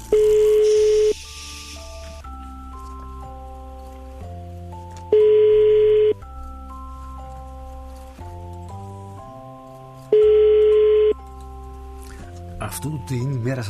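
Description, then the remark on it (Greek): A telephone ringing tone repeats in roughly one-second bursts every few seconds, with steady electronic dialing-style tones stepping between pitches in the background, ending in a warbling tone. “σήκωσε το τηλέφωνο σου”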